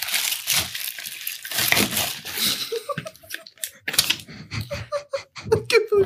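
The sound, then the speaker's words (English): Plastic wrapping crinkles and rustles as a gift package holding 24 glitter pens is torn open, loud bursts of crackling for a few seconds, then softer handling with brief voices and a laugh mixed in. “I have another package as well”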